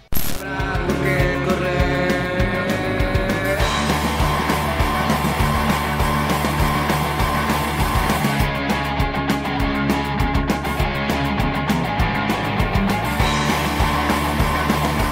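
song

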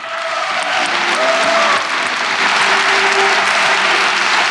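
audience applause

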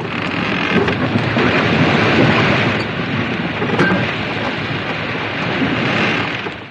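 storm with thunder

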